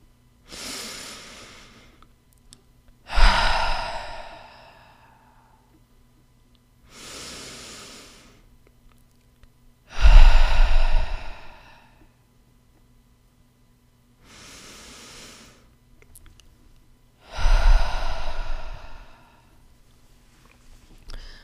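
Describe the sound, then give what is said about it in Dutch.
Three slow, deep breath cycles, each a soft inhale in through the nose followed by a louder, gusty exhale out through the mouth, evenly paced with quiet pauses between them. No one speaks. “Adem drie keer in door je neus en uit door je mond in jouw eigen tempo.”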